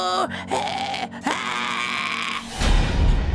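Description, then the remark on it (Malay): A woman's voice lets out long, strained screams, rising and wavering in several drawn-out bursts before breaking off into a rough, noisy rumble, acted as a woman being forcibly dragged into a house. “Begitulah keadaan dia terpekik-pekik.”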